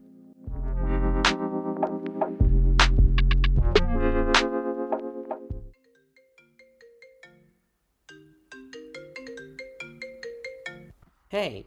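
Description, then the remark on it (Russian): A telephone ringtone before a phone call between two friends plays as a loud, bright electronic melody of repeating tones for several seconds, then continues as a softer, tinkling tune before ending with a quick rising sweep. “Это будет телефонный разговор двух друзей о погоде.”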